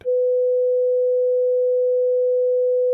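A steady, pure electronic tone at a mid-low pitch around 500 hertz, holding constant and loud for three seconds with no variation or other sounds, then cutting off abruptly.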